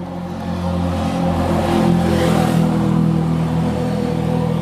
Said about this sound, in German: Das war ein Quad. Naja, sowas ähnliches. Ein Quad. Sowas ähnliches. Und das ist ja auch äh, ohne Helm, also.